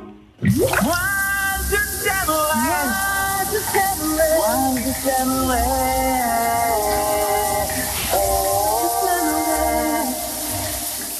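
A steady, hissing spray of shower water runs throughout, fairly loud, with two people showering and singing or vocalizing over the rushing water.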